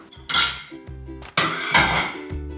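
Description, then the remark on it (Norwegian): Dishes clatter and clink as they are taken out of a dishwasher, with several bright, ringing knocks of plates and cutlery in quick, uneven bursts. “Jeg tar f.eks. ut av oppvaskmaskina.”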